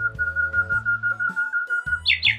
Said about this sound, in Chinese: 夜莺说完，便唱出动人的旋律。